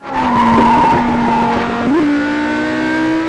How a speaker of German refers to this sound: Heulende Motoren, quietschende Reifen, vorbeifliegende Landschaften, das macht ein gutes Rennspiel aus.